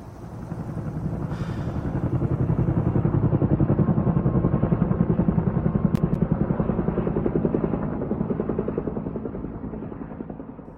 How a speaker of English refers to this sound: Helicopters are dropping tens of thousands of tons of water on flames spreading in areas like Portland, the state's largest city.